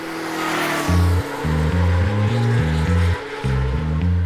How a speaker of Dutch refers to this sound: motoren. Honderden, duizenden Harleys, Kawasaki, Suzuki's, Honda's en Yamaha's uit heel Europa zijn onderweg naar het circuit in Assen, waar de jaarlijkse TT gehouden wordt.